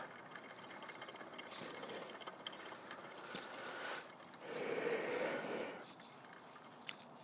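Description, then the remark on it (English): A hand crank wheel is turned for precise adjustment, taking a little off or putting a little back, with a steady run of small ratcheting clicks, fairly quiet, the mechanical clatter rising and easing in short bursts with no voices. “I also love your uh, precision with a hand crank wheel. You can take just a little bit off or put a little bit back on.”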